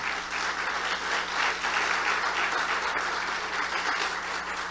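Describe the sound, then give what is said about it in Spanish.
Steady, dense audience applause fills the whole stretch, a continuous patter of many hands clapping at an even, fairly loud level, with no voices standing out; the audience is applauding the mothers. “Denle un fuerte aplauso a cada madrecita.”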